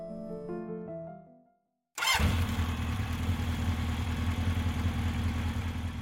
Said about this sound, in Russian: Зять завел мотоцикл.